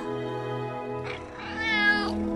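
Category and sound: animal, cat meowing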